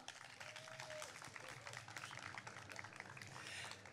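Steady applause from an audience for a guest introduced as IKEA's Sustainability Coordinator, a dense wash of many hands clapping that holds at an even level throughout, with a brief faint tone near the start.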